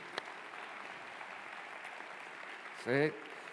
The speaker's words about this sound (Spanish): Aleluya, aleluya. Si le vas a aplaudir, apláudele bien.